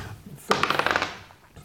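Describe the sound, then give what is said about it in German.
Dice clatter onto a hard surface with a quick rattling burst of several sharp clicks, tumbling for about half a second before settling into quiet. “Los der Würfel.”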